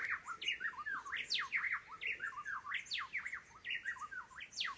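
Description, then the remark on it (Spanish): A dense chorus of birds sings and calls at once, quick overlapping chirps and whistled notes filling the air continuously, with no voices present. “Escucho, pero no veo cuáles son los animalitos que, lo, que hacen ese canto.”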